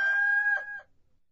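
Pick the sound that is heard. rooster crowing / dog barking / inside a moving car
rooster crowing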